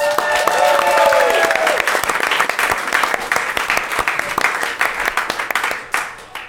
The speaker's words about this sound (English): Let's give him a nice round of applause.